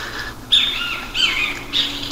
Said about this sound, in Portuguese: Mais uma vez nessa caminhada aqui, com a música de fundo aqui, o Bem TV e outros pássaros.